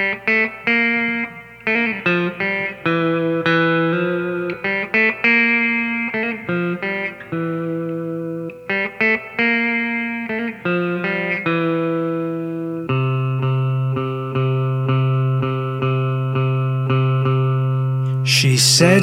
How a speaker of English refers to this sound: Allora, partiamo ascoltandoci una delle cover realizzate